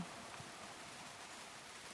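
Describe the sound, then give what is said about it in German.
Soft, steady rain falls at night in a continuous hiss, even and unbroken, with no voices or other distinct sounds. “Haben Sie den Regen schon gerochen?”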